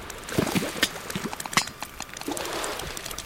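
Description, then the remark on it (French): Sperm whale clicks underwater in the warm, salty water of the Mediterranean: a quick, irregular series of sharp, dry clicks, some louder than others, tapping out a Morse-like pattern over a murky, rumbling water background. No voices. “J'entends un bruit qui ressemble à des claquements de doigts ou de langue. On dirait du morse.”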